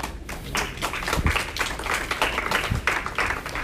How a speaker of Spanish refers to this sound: Da un aplauso a Jesús.